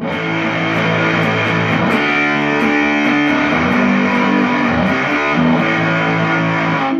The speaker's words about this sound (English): This is a quick comparison. This is Yeah. the um, this is the fuzz star. This is the bright setting too.